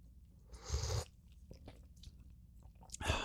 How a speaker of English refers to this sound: this coffee mug that I have that I'm going to sip from